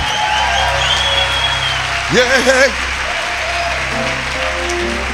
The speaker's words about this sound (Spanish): Hay un aplauso a la palabra profética.